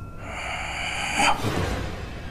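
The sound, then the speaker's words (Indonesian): A voice imitates an eerie, drawn-out moaning groan, a sustained wavering tone lasting about a second before breaking off into breathy, hissing noise. “saat aku kayak gini ini suara yang tadi mengerang itu tadi itu muncul lagi”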